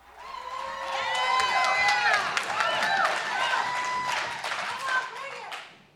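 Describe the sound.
The audience at a storytelling show applauds a storyteller with dense, rapid clapping while voices whoop and cheer over it, swelling loud for several seconds before tapering off at the end.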